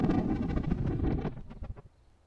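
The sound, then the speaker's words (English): Thunder on Mars as simulated by Dr. Leighton: a muffled, low, dense rumble rolls for about a second, then breaks into a few scattered crackles that quickly fade to near silence. “And here's what it would sound like on Venus.”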